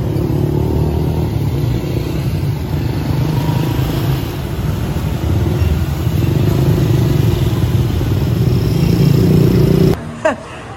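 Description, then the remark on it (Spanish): Dense street traffic dominated by many motorcycle taxis buzzing and revving past, a continuous loud engine drone with shifting pitches, ending abruptly near the end. “Vean por favor todas las motos.”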